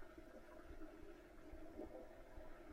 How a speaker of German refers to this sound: Also es war die Klospülung. Jemand hat die Klospülung gedrückt.